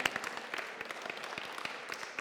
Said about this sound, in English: Go ahead, guys. Give them a round of applause to go back to their seats.